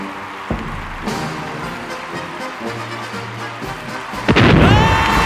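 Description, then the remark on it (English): Cannon fire booms out in several sharp blasts spaced a second or more apart, ending in a louder, longer roaring burst with ringing overtones; no one speaks. “I'm going to sentence you to be shot out of a cannon in a spectacularly patriotic fashion.”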